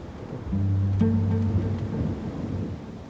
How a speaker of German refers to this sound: Ein Sturm fegt über die schleswig-holsteinische Ebene. Mit Regen, kaltem Wind und Hagel.